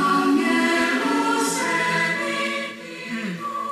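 A choir in a recorded radio drama scene sings in sustained, blended voices, several pitches layered together in a full, steady chord that swells slightly before easing off near the end, with no spoken words over it.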